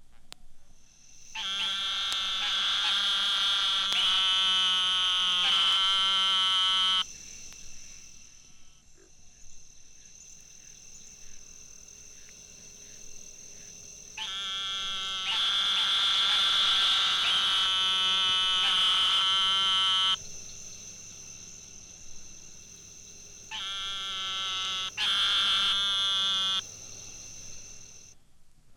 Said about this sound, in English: This is a call of the eastern narrow mouthed toad, Microhyla carolinensis.